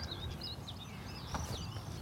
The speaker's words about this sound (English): listen to those stone chats.